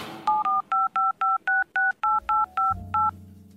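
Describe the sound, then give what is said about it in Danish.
A rapid run of about eleven crisp telephone keypad tones, evenly spaced beeps as a phone number is dialed to call a Christmas expert from Svaneborg, clear with a low hum rising underneath near the end. “Jeg ringer med det samme.”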